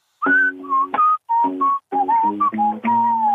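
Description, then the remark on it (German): A person whistles a short, bright melody, a whistled motif for a song, moving through several distinct notes in brief phrases separated by small pauses, with no talking. “Äh, und es kam in meinen Kopf zehn Minuten später dieser Pfeifer.”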